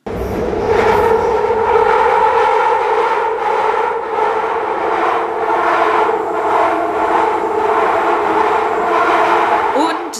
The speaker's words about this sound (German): Das Quietschen ist technisch gesehen als Schienenquietschen bekannt und tritt bei den meisten Zugsystemen eben auf